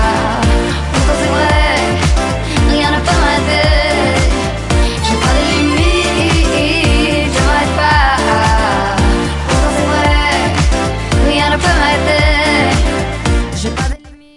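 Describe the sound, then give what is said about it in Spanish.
A loud, steady pop song with a driving beat and a sung female vocal line in French, playing continuously over full backing instrumentation before cutting off abruptly at the end. “que canta en inglés, italiano y francés, como lo hemos escuchado en, este, en esta sección.”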